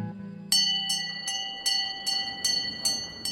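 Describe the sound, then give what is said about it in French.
A hospital emergency bell rings in an MSF hospital as a pick-up truck arrives in the courtyard with an emergency: rapid, insistent, about eight bright metallic strikes in steady succession with a lingering tone, over a low rumble that fades early on. “Ça grince, ça hurle, et puis la cloche teinte.”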